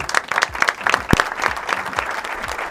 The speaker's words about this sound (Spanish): Démosle un fuerte aplauso al campeón mundial de boxeo César Cuenca.